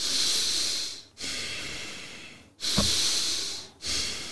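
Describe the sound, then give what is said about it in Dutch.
Deep breaths drawn in through the nose during a breathing exercise, with the air led all the way down to the belly so it expands like a balloon; the person sits upright with a hand on the belly. Three long airy inhales and exhales in a steady rhythm, each a broad hissing rush that swells and fades. No one speaks. “Als je inademt door je neus, dan laat je dus lucht helemaal doorlopen naar je buik.”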